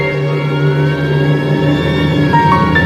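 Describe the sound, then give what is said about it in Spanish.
An ambulance siren, arriving at a quarter past seven in the morning, wails steadily and loudly, its pitch slowly gliding, layered over a constant low rumbling drone with no one speaking. “Cuando llegó la ambulancia a las 7 y cuarto de la mañana, el paciente ya estaba muerto.”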